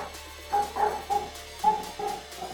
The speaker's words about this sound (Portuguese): Olha o cachorro.